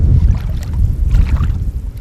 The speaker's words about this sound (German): Mehrere Meter breit, fast knietief fließt das bräunliche Wasser hier über die Straße.